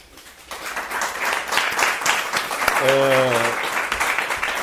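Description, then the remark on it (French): An audience applauds a guest after the first part of a talk, breaking into steady, dense applause after a brief quiet start, holding at an even loudness throughout, with a short voiced call or cheer rising above the clapping partway through. “Et, donc déjà, merci pour cette première partie, je pense qu'on peut t'applaudir.”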